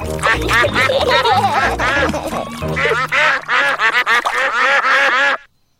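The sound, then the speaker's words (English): In Peppa Pig, ducks at a little duck pond quack busily and continuously for several seconds as they are fed bread, a loud chorus of overlapping nasal calls that stops abruptly. “Peppa and George love feeding bread to ducks.”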